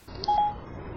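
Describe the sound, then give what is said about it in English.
Two short electronic tones chime in quick succession, clear, over a faint background hum with no talking: a phone's voice assistant, Siri, activating after the home button is pressed and held down. “Now, from anywhere, in your device, you can press your home button, hold it down, you'll hear two beeps.”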